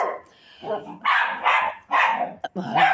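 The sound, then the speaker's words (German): Several dogs bark in quick succession, a run of loud, overlapping woofs with brief gaps between them, and a voice can be heard in the background. “Hunde. Moment. Ja, okay, sie haben es geregelt.”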